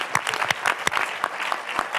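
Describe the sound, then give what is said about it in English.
An audience applauds a panel steadily at the end of a panel discussion, many hands clapping in a dense, continuous patter with sharp individual claps popping out, at a moderate, even level with no talking. “If we can clap one more time for our panel.”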